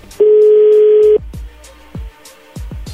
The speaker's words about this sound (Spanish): Le marcaron del otro. Bien, ahí le están marcando del otro teléfono.